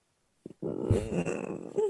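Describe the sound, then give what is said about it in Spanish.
A voice imitates a cat's purr with a low, rough, rumbling growl held for about a second and a half, preceded by a short breathy sound, moderately loud and without other talk. “Óigala, como un gato ahí gonorreando.”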